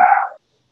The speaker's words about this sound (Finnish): sori täällä koira haukkuu takana